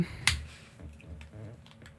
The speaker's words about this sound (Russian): Да, я открываю бутылку зажигалка в этот момент.